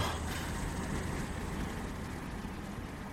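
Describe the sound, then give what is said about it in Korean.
A rough, hoarse vehicle engine runs steadily and close by in pitch darkness and silence, headlights on, a continuous low rumble with a gritty, noisy edge that holds an even level throughout, with no voices. “목쉰 듯한 엔진 소리는 어둠과 정적의 벽에 부딪혀 바로 우리의 귓가에서 부서지고”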